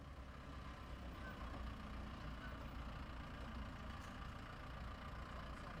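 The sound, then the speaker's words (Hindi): A pickup truck engine idles steadily with a low, rumbling drone, fairly loud, holding an even level for several seconds with no voices, as the pickup stops in front of the Joshila Restaurant in Satwas. “pickup गाड़ी सतवास के जोशीला restaurant के सामने रुकती है”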